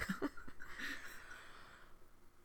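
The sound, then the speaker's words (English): A mouth-made fart noise, a quick sputtering start that trails into a breathy, buzzing raspberry lasting over a second, fairly quiet, with no talking. “is it hard for you to make a fart noise with your mouth because your mouth is so small?”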